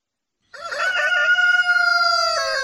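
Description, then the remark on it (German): A rooster crows once, loud, a single long drawn-out call that starts abruptly after a brief silence and holds steady to the end. “als Petrus diesen Hahn gehört hat, komm, bring nochmal”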